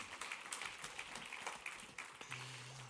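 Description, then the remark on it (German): Crowd applause at a church as the kids' church leader comes onto the stage: a steady, dense wash of many hands clapping for about three seconds, with a low hum entering near the end. “Geben wir einen riesen Applaus.”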